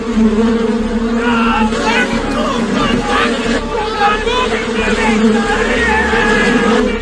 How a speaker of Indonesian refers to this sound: Para lebah mendengung dan mendekati para pekerja.